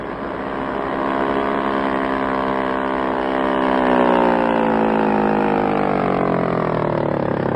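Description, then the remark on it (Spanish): A police motorboat's engine roars steadily, its pitch climbing and loudness growing as it approaches fast, a continuous high-revving drone with no voices over it. “Sus azules ojos están fijos en la lancha policíaca que se acerca velozmente”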